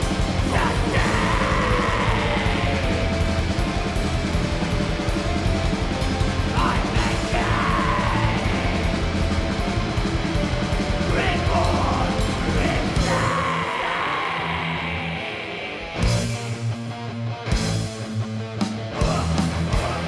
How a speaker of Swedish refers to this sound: Men så länge de kör långsam grind Väldigt mullig och skön produktion. Sån där musik som inte hörs när man klipper gräs samtidigt som man lyssnar på musik.